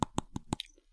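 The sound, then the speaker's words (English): Four sharp, evenly spaced clacks of real teeth chomping together, crisp, followed by a softer fifth click as the rhythm trails off, with no talking. “all your real teeth that's the sound of uh, a perfectly tuned pair of choppers”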